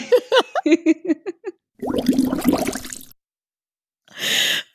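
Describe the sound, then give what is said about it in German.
A voice imitates a grumpy anglerfish snorting and blowing lots of air bubbles: a run of short voiced puffs, then a long wet bubbling blow, and after a pause one breathy snort, all fairly loud. “Der einfach nur so schnaubt und dann kommen so ganz viele Luftblasen raus.”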